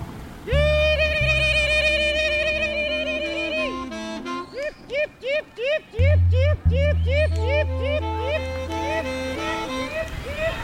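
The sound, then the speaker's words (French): A flock of tired sheep bleats while crossing a road between Saint-Denis and Stein, with many short overlapping calls in a quick, irregular stream, as cars wait at a traffic light to let them pass. A steady low rumble of the waiting cars runs underneath. “Les voitures attendent, euh, même si maintenant ça y est, le feu est repassé au rouge, mais les voitures attendent. Elles laissent passer les moutons.”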